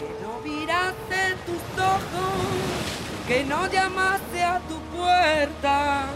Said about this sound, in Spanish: Hasta que llegaron al puerto. Era un puerto para barcos pequeños, barcos de pesca, veleros, botes. Como el mar estaba picado no había nadie, solo gaviotas chillonas y cormoranes en el cielo.